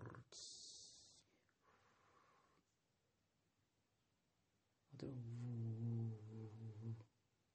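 Loud snoring: a rough, noisy snorting breath at first, a fainter exhale, a pause, then a long buzzing, throaty snore. No talking.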